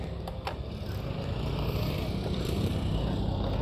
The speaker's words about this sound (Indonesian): Ada mobil ya?